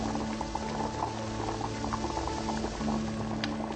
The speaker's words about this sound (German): Was, du fauchst? Bestie. Willst du mir Angst machen? Bist doch eine gute Kaffeemaschine, nicht wahr?